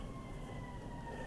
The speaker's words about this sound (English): Oh don't know if you can hear that ambulance going by or not. That's uh, you know always fun.